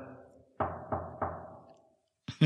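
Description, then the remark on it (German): Three firm, evenly spaced knocks on a hotel room door, each with a short hollow ring, followed by a brief pause and a sudden louder sound at the very end. “Ich, ich klopfe mal.”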